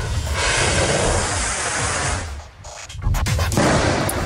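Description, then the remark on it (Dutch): A dense, loud barrage of fireworks exploding, a continuous roar of overlapping bangs and crackles that briefly thins out before a few sharper, distinct blasts burst out near the end. “Jawel, hashtag vuurwerk. En dan vooral vuurwerk uit Duitsland.”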